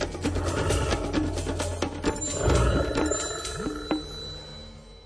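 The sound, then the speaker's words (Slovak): A brown bear growls in deep, rough rumbles that rise and fall over several seconds, fairly loud, with no voices present. “Keďže na Slovensku žije odhadom 600 až 800 jedincov medveďa hnedého, stretnutie s týmto kráľom lesa nemusí byť v pohoriach stredného, severného a východného Slovenska ničím výnimočným.”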